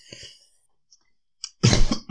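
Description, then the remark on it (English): A soft breath and a brief catch, then one loud, explosive cough bursts out after a short pause. No talking is heard. “As I'm talking about coronavirus, the cough just comes.”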